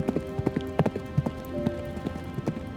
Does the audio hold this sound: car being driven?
no